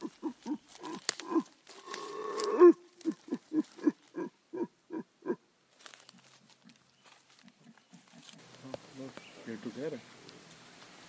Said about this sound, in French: Ils sont en train de chasser les singes hurleurs qui sont venus sur leur territoire, vous voyez oh, oh